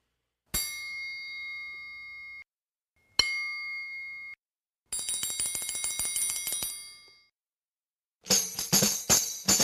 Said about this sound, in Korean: 프로들의 연주를 보면 아, 이건 정말 아주 네. 매우 연주하기 어려운 악기입니다. 손이 안 보여요. 트라이앵글 같은 네. 경우는 봐봐봐. 트라이앵글과 이어서 탬버린 소리 한번 듣고 오시겠습니다.